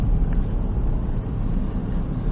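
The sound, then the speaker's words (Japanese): Steady low-frequency rumble of a car cabin while commuting to work by car on a Monday morning, a continuous engine and road drone filling the background with no speech, dense and fairly loud throughout. “はい、このポッドキャストは、私が車で通勤しながらですね、ポッドキャストを収録してしまおうという、えズボラな番組でございます。”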